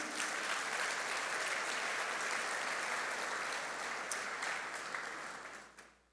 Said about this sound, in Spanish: Pero fue buen maestro. Denle un aplauso al maestro